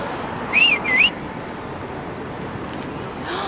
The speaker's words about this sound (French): T'en penses quoi de moi, je ne siffle pas les garçons